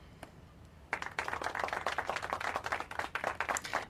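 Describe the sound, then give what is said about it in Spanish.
A burst of applause starts abruptly after a quiet moment and continues steadily, many quick overlapping claps at a moderate level. “Un aplauso.”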